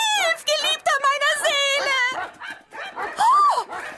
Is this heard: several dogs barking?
yes